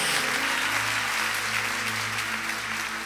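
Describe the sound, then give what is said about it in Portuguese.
A large audience claps steadily, giving a round of applause to the Lord in a dense, continuous wash, with a sustained tonal hum of instruments underneath throughout. “Dá uma salva de palmas ao Senhor, dá um grito aí em nome de Jesus.”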